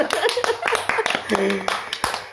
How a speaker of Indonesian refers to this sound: kita beri tepuk tangan yang mulia padahal gue sudah tepuk tangan